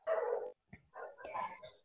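A dog barks in a few sharp, harsh bursts: one long bark, a brief pause, then a quick cluster of yappy barks. No one speaks.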